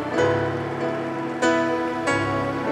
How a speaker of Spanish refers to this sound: Dale un fuerte, fuerte aplauso a Él.